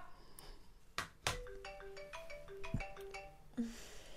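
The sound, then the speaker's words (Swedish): A phone's electronic call tone plays a short stepped melody of clear beeps while redialing after a dropped call, broken by a few sharp clicks, fairly quiet and with no one speaking. “nu dog samtalet. Ja. oh, jag som ville ha ett litet skratt och Karina”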